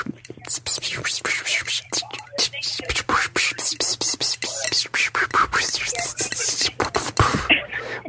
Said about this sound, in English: that clicking and S sound stuff at the end too long, or did it go on for too long, or?